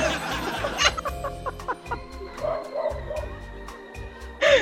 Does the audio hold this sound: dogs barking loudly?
yes